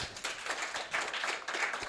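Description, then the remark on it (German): A crowd applauds steadily, a dense wash of many hands clapping at once. The applause sounds soft, holding an even level throughout with no voices above it. “Kleiner Tierfreund, Applaus an der Stelle kann man auch mal machen.”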